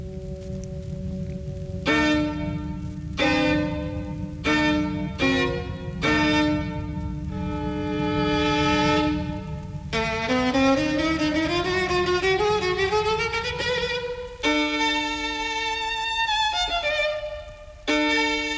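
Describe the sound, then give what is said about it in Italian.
A solo violin plays a piercing, forceful cadenza of sustained, harmonically rich notes and chords, broken by short pauses, with a rising sliding run in the middle. No one speaks. “Ascoltiamo questa cadenza eh, davvero lancinante, violenta e di profondissima solitudine.”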